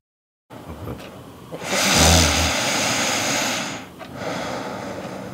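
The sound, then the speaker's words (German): One loud, rasping snore swells up and holds for about two seconds with a low buzzing rattle, then fades into softer breathy noise. “Ja, schlafen, schnarchen.”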